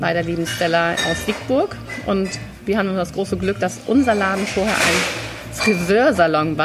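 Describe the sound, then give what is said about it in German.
Dishes and glassware clink and clatter faintly in the background as a bar is being set up in a shop, while people talk over it, with a brief louder rattle partway through. “Ihr hört es im Hintergrund ein bisschen scheppern. Wir bauen gerade die, die, Bar auf, ganz wichtig.”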